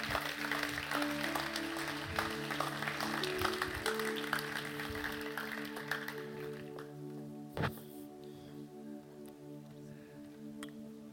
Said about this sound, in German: Geben wir all diesen Personen, die auf die Bühne können, einen riesen Applaus. Cool, seid ihr da.